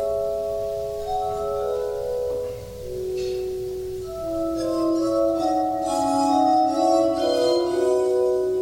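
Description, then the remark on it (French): A glass harmonica plays a slow melody of sustained, ethereal ringing tones that overlap and glide from note to note, holding a steady, moderate loudness throughout with no voices. “L'harmonica est aujourd'hui devenue confidentielle, mais la fascination des musiciens pour les instruments de verre ne faiblit pas.”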